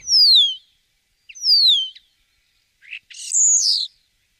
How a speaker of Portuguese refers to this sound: E você já viu um estorninho? É, um estorninho, um pássaro todo bonitinho assim. Quem olha esse pássaro todo fofinho nunca vai imaginar que, na verdade, Trata-se de uma praga que, segundo o Ibama, já está invadindo o Brasil.